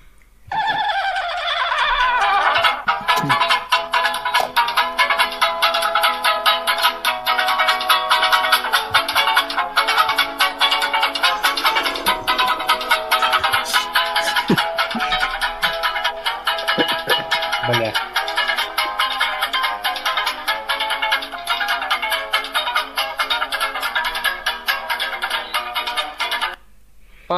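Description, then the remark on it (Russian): A spinning roulette top, launched to start the first round of a quiz game, whirs steadily for nearly half a minute, a loud, continuous, high-pitched tonal warble with ringing, chime-like overtones, and faint voices beneath it before it cuts off. “Волчок ты запускай.”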